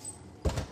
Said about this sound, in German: Tür zu.